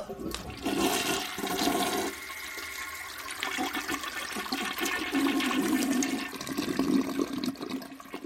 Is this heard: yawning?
no